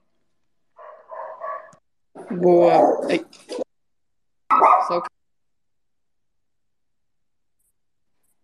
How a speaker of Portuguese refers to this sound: Foi mal o cachorro aqui estava latindo.